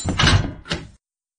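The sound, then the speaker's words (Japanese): A front door swings shut with a solid thud, followed a moment later by a shorter clack as the door is locked, then abrupt silence. “よくわかりませんが、私は玄関の中に入ってドアを閉め、鍵をかけました。”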